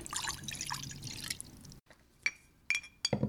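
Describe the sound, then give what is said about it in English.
Dry spices including oregano and sea salt are stirred in a bowl, a gritty scraping for a moment, then a few sharp clinks of a utensil tapping the glass before more stirring. “So I'm going to go ahead and mix those things together.”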